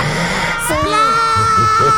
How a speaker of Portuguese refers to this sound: E gritar esse gritinho.